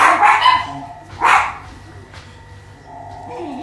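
A small dog gives two sharp, high-pitched barks about a second apart, followed by a quieter stretch with faint background tones and no talking.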